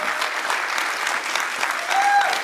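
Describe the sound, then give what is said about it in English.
A church audience applauds the ministry's volunteers: a steady wash of many hands clapping at once in a dense, even patter that holds its level and swells slightly toward the end, with a brief whistle-like tone near the close. “And I just uh, let's let's give let's give them a good applause for that.”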